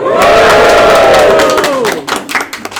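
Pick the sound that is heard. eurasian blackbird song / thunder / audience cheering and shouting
audience cheering and shouting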